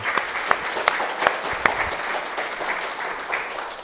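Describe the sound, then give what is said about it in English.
A church audience claps together in sustained, dense applause after a miracle testimony, with a few sharper, louder claps standing out early on before the clapping settles into an even patter. “And just like, can we just put our hands together?”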